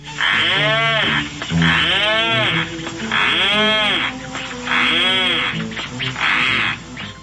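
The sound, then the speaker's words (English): A rhinoceros auklet, a small seabird weighing about 16 ounces, gives a series of five loud, groaning calls, each a low moo-like moan that rises and falls in pitch, repeated at a steady rhythm with no voices. “And here's the sound of a rhinoceros auklet.”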